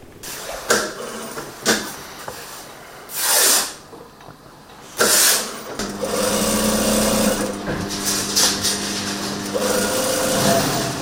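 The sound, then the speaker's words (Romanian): A sewing machine runs in steady bursts, starting and stopping with a few clicks and thumps, then settles into a continuous mechanical whir with a faint tonal hum, in a tailoring workshop on Mount Athos where embroidered priestly vestments are made. “La Chilia Bunavestire se află singurul atelier de croitorie de pe muntele Atos, unde se fac veșminte preoțești brodate.”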